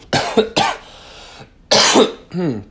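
human body sound, cough

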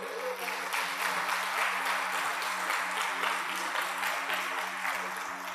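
crowd, audience applauding

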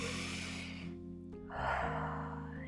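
human body sound, deep calming breath

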